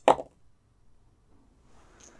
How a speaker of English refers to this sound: Rolling dice.